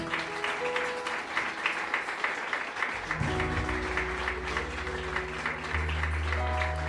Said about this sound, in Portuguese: Você pode aplaudir ao nome do Senhor Jesus.